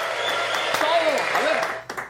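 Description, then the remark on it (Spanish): A steady wash of applause runs for about two seconds, dense and fairly loud, with a few sharper claps and some rising, sliding voice-like tones mixed into the crowd noise. “El aplauso, el like.”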